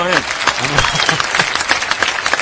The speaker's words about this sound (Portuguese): Ah, ah, palmas